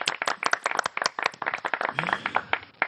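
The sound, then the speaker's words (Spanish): A short burst of canned applause played at the end of a program: many dense, overlapping claps rattling along steadily for a few seconds, moderately loud, with no voices over it. “Vamos a poner un aplauso enlatado de estos que tenemos aquí.”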